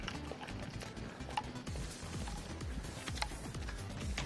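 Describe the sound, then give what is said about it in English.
Small hard objects on a lanyard clunk and clack together in a steady, rhythmic pattern with each footstep as someone walks around a university, fairly loud, over a low background rumble. “We can hear all of the things on your lanyard are just clunking oh, away.”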